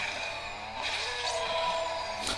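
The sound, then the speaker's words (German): Race cars in a video game skid and drift heavily, with a continuous high-pitched tire screech over revving engines, loud, lasting the whole moment without any voices. “Äh, die Autos driften sehr stark.”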